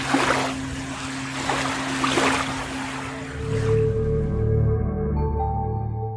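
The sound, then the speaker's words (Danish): Waves wash in on the beach at Tankrogen on a warm, humid summer day in a few soft, rolling surges, then the surf recedes as sustained musical tones rise and take over. No one speaks. “Og sådan en dag som i dag, hvor jeg går på stranden ved Tankrogen, så kan jeg da mærke det som fugt i luften på den her varme sommerdag.”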